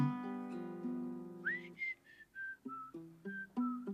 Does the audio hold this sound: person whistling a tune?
yes